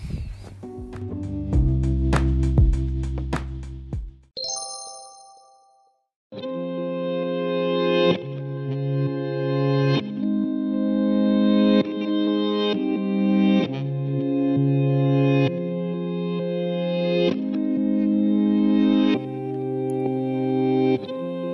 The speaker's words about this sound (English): Here's a song for the day.